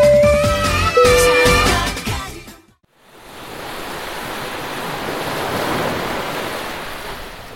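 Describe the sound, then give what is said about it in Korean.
A short burst of music ends in a brief hush, then steady ocean waves take over at Dokdo, a volcanic island in Ulleung County, North Gyeongsang Province: a broad, continuous rushing wash of surf that swells slightly and rolls on with no talking. “자, 오늘은 경상북도 울릉군, 울릉읍 독도리에 와 있습니다.”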